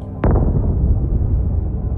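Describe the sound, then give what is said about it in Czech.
A single heavy explosion booms nearby in Dnipro, Ukraine, muffled through well-sealed closed windows, its low rumble lingering and rolling on for a couple of seconds afterward. No voices are present. “Ty první exploze to byla taková předzvěst a ta třetí nebo čtvrtá, to už se měl dost nahnáno.”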